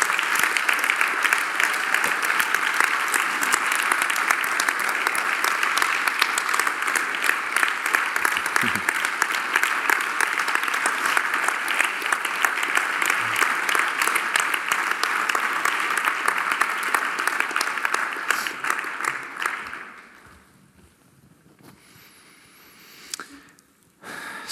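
Sustained, loud audience applause with dense clapping from a large crowd, continuing steadily for about twenty seconds before fading out quickly into near quiet.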